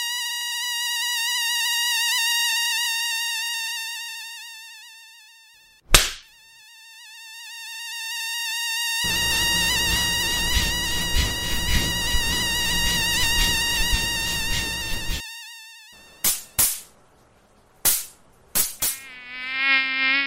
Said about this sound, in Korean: 오늘은 모기와 전쟁을 벌이는 소리 들려드렸습니다. 여름이 왔구나 실감하는 계기는 여러 가지인데요. 그 중에 하나가 바로 귓가에서 앵 하고 우는 모기 소리입니다.